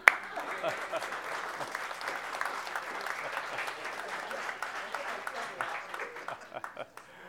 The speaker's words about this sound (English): And um, do you want to like do a bow or just we can clap for you?